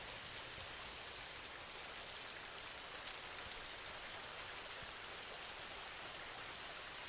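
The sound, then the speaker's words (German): Soft, steady rain falls continuously, a dense even patter of drops with no pauses, gentle, with no voices present. “Alles, was dich belastet, wird von dem sanften Regen weggewaschen.”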